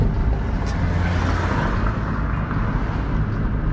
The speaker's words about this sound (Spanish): Se puso en verde y yo lo que hice fue acelerar acelerara todo lo que podía, todo a fondo, hasta se así. se escuchó el coche que quieren que yo haga. Sonidos artesanales, efectos artesanales.